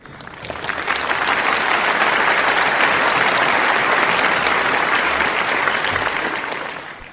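A big, sustained round of applause from a crowd, dense clapping swelling in quickly, holding steady and loud for several seconds, then tapering off at the end. No voices are heard.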